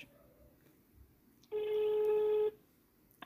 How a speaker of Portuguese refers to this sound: Portanto, vamos aqui ligar-lhe. Espero que a qualidade do áudio não seja horrível. Mas pronto, vamos lá então testar. vamos ter falante. Esperem. Será que se ouve bem? está a chamar.